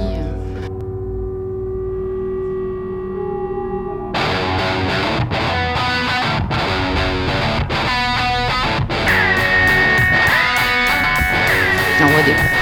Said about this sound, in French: un gros son de disto, super beau. avec ah, plein de reverb, un, un peu aigu